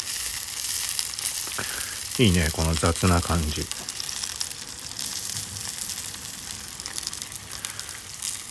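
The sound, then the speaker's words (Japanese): Garlic, pork, sausage and cheese sizzle steadily in a frying pan set on a folding pipe chair over a portable gas stove, a constant crackling hiss that fills the whole clip, with a man speaking briefly over it near the start. “今フライパンをパイプ椅子の上に乗っけてガスコンロ携帯用ガスコンロでニンニクと豚肉とウインナーとチーズを焼きながらビールを飲んでます”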